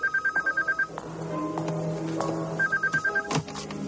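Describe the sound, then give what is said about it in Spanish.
A home telephone rings in two bursts of rapid electronic trills, one at the start and another near the end, while a woman cooks, with kitchen clatter and background bustle in between. “Una mujer que cocina descuelga el teléfono en su casa.”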